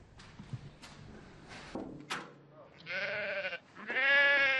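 Two loud, wavering bleats from goats or sheep kept in an abandoned apartment on the third floor of a house, following a few short rustles and knocks; the second bleat is longer and higher, with a shaky, nasal tone.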